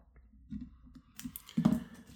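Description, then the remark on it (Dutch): Soft scratching and tapping of someone writing a short note by hand on a to-do list, adding "2 minutes" next to "cold shower", with light rustling bursts that grow busier toward the end; no one speaks. “Ik ga dat er zelfs bij schrijven, want staat hier gewoon koude douche.”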